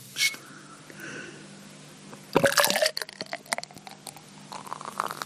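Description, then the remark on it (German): Beer splashes and gurgles into a beer glass in a short burst, followed by scattered fizzing pops and drips as it settles, with no talking. “Das ist auch beim Einschenken sehr verhalten.”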